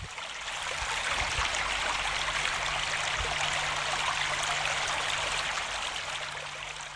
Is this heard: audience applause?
no